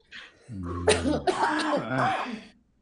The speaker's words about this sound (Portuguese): eu começo a rir muito, eu tenho umas tosse de velho.